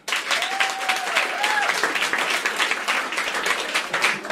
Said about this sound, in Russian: А поаплодируйте, кто изначально не из Москвы, похлопьте, пожалуйста.